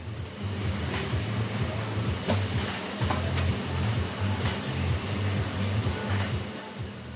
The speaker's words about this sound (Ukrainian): А тепер зазирнемо на саме виробництво. У цехах триває робота. Тут дуже голосно. Звуки машин поєднуються з енергійною музикою, однак це не заважає працівникам зосереджено виконувати свою роботу.